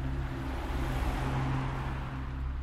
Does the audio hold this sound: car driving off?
yes